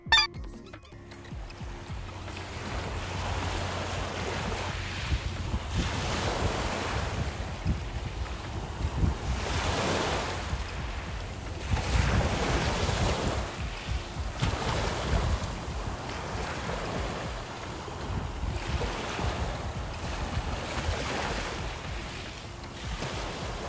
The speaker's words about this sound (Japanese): 残りはいい音だなと思い録音していた今年2023年の初詣初詣での神社の音と海のさざ波の音です。うん、環境だねじゃあ。海のさざ波から行ってみます。はい、さざ波聞いてみましょう。